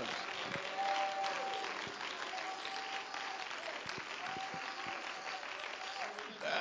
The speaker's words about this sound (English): Praise the Lord. Somebody ought to just take a moment and clap your hands.